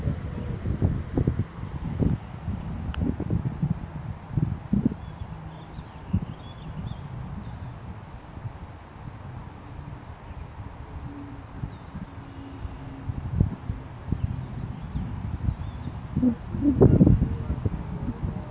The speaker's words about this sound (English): We're just gonna listen to the wind blow and listen to the birds chirp.